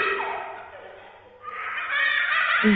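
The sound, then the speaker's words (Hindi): A child's high-pitched laughter rings out suddenly in a continuous burst as a woman shuts the kitchen door to go lie down, dipping briefly before rising into brighter, louder giggling, with an eerie, slightly echoing quality and no speech. “मैं किचन का दरवाजा बंद करके लेटने के लिए जा रही थी तभी अचानक से एक बच्चे के हंसने की आवाज आई”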